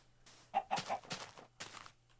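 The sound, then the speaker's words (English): A chicken clucks several times in quick succession, a series of short, bright bursts over a low steady hum, with no one talking. “Wrangle them chickens.”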